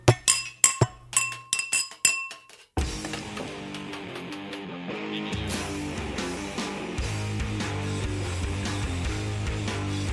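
A quick run of bright glass clinks, several glasses tapped together in a congratulatory toast, ringing briefly before music abruptly starts and continues to the end.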